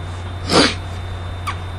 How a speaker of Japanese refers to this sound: この鼻すすってんのは別に泣いてるわけではなく花粉症なんですけれどもね、花粉がやっぱり来ましたね。